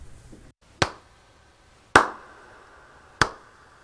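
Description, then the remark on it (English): Three sharp hand claps at a slow, steady pace, each a loud crisp smack with a short ringing tail, separated by near silence and no talking. “Let's hear some claps.”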